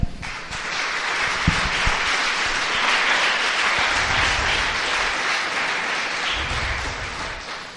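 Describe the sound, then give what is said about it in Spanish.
An audience breaks into sustained applause for the Lord during a sermon, a dense, steady wash of many hands clapping that holds at an even, fairly loud level for several seconds without any talking. “¿Le da un aplauso al Señor esta tarde?”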